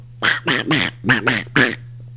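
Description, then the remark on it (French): A voice imitates a duck, giving five quick, raspy quacks in two bursts, fairly loud over a steady low hum. “Ça, c'est plus un canard, par exemple.”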